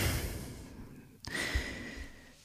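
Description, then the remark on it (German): A slow, deep belly breath, the abdomen expanding on the inhale and sinking on the exhale: a long airy exhale, a brief pause, then another drawn-out breath, soft and steady with no talking. “Wir atmen nochmal in den Bauch und zwar, wenn wir einatmen, dann weitet sich der Bauchraum.”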